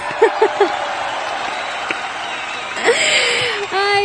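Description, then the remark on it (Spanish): A steady round of applause fills the whole clip, dense rapid clapping at an even loudness, with brief vocal sounds rising over it near the end. “Pues un aplauso para mí porque no le tengo miedo a nada en esta vida ya”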